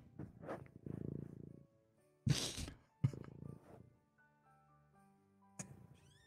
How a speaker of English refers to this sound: For those listening no and not watching the podcast, there is a there's a cat.